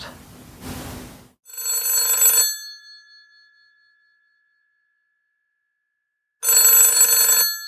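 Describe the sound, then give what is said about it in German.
A telephone bell rings twice, each burst a loud metallic trill about a second long with a gap of several seconds between, after a brief rustling noise at the start. “Schön, dass du anrufst.”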